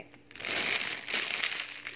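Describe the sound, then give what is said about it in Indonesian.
A stiff PP (polypropylene) plastic bag being squeezed and crinkled, a dense run of crackling and crunching that starts after a brief quiet moment and continues steadily, bright and fairly loud, with no talking. “lebih uh, lebih apa sih lebih ringan suaranya iya lebih ringan kalau ini agak lebih lebih kaku uh, lebih dalam”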